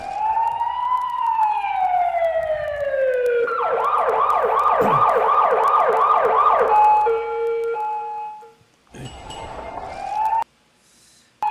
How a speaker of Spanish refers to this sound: Pero bueno, a ver, señores, aquí está la sirena.